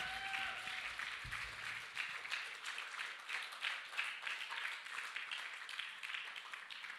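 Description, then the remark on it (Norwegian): Sustained audience applause for the worship music team, a dense wash of many hands clapping at steady volume for several seconds, with a brief tonal hum fading out near the start. “Gi eh, lovsangstimen skikkelig applaus.”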